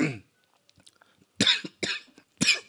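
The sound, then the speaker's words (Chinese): A fit of harsh, loud coughing from someone about to read a quote aloud: one burst at the start, then after a short lull three forceful coughs in quick succession, with faint throaty sounds between them. “我就爆咳嗽，我觉得太诡异了”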